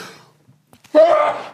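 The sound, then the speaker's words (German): A single loud sneeze bursts out after a brief pause, with a quick intake of breath just before it and a moment of quiet talk fading beforehand. “Gesundheit. Gesundheit. Gesundheit.”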